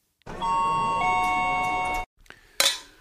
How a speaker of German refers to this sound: Immer diese Plastikgläser hier. Ja, ist der Wahnsinn. Die klingen ja. nicht gut, sind aber trotzdem die besten Gläser.